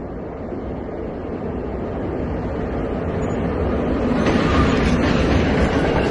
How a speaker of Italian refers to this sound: Nel frattempo stava arrivando il suo treno.